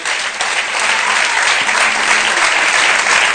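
Audience applause fills the whole stretch, a dense steady wash of many hands clapping at a fairly loud, even level with no talk over it.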